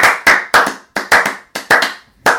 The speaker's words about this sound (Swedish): Det var den sämsta applåden, minst synkade applåden jag varit med om.